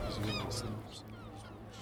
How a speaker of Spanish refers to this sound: una de las cosas que me encanta de este campo de golf pues, es las gaviotas. Todos están tan callados, pero las gaviotas siempre están presentes.